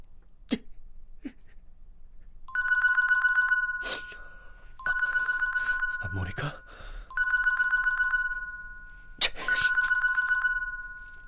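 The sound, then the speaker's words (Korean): A phone rings in four repeated electronic bursts, each a bright, high warbling tone about two seconds long with short gaps between, plus a few brief clicks and knocks around them. “나한테 무슨 말을 하려고 또 무슨 변명을 하려고 전화한 거야.”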